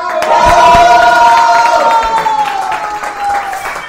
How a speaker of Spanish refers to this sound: Vamos a recibir con un fuerte aplauso